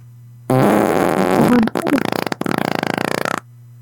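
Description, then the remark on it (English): A long, loud fart sound lasting about three seconds, starting as a broad blast and breaking into a rapid, sputtering rattle of pulses before stopping abruptly. “Are you blowing a balloon? No, I have a gluten intolerance. I'm farting.”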